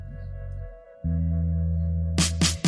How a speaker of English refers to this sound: and they have a little like test your speaker button that you push, and it plays this little jam, and it's like absolute fire, and you're about to hear it right now.